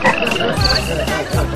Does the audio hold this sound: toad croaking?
yes